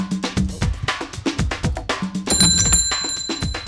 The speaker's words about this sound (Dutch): ja, dat was een nieuw belletje van. Die had ik nog niet eerder gehoord.